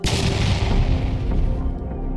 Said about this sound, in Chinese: 炸弹在爆炸的同时飞溅出来一张纸条。